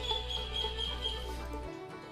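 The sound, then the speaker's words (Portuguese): Faint, steady high-pitched chirps of many birds outdoors, from the lawn behind the speaker, layered over a low background hum that cuts out near the end; no voices. “Gente, muitos pássaros.”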